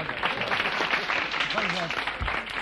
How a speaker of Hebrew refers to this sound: לא צריך להגזים גם כן. אמנם בן אדם ותיק, מגיע לו הרבה מחיאות כפיים.